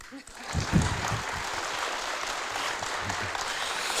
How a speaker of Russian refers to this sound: Можно аплодировать.